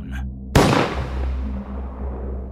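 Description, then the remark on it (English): A single loud shotgun blast cracks out sharply over a low droning hum, then trails off in a long, rumbling decay that fades slowly over the next two seconds. “Meanwhile, the second me that's standing by the door lets loose the shotgun firing a bullet straight through the back of Sebastian's skull and popping his head like a water balloon.”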